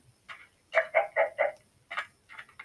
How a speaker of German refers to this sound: Ehrenlose Hühner.